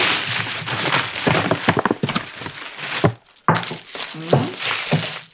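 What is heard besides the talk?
rustling paper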